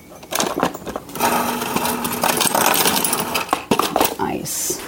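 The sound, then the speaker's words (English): Ice cubes clink and clatter into a large cup with a straw, a quick scatter of sharp knocks followed by a steady jumble of rattling over several seconds, with a few louder clacks near the end. “And I am putting some ice in it.”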